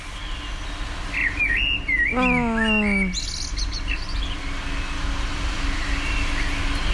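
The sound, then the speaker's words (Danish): A common blackbird sings about two meters away: a short fluty whistled phrase ending in a thin, high twitter, over a steady low hum of traffic. A person briefly murmurs midway. “Øh, og så to meter fra mig, der er der en solsort, der sidder og lige er i gang med at fløjte en sang.”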